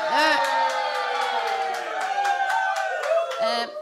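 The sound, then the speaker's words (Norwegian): A live audience at a vorspiel (pre-party) with wine cheers steadily for a few seconds, many voices blending into a loud roar with shrill whoops and rising yells poking out, plus a few sharp claps scattered through. “men er det mulig å høre dette publikummet?”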